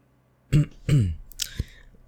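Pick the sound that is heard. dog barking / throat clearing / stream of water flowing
throat clearing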